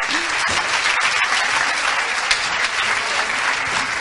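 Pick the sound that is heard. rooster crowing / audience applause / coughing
audience applause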